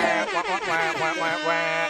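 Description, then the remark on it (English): A loud, blaring air horn sound effect blasts continuously for about two seconds, its brassy tone wavering and stuttering in quick repeated bursts, with no talking over it. “yeah, we're we put like an air horn effect in there.”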